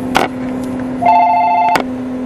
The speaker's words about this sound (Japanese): まさかの店の電話が鳴ったと思ったら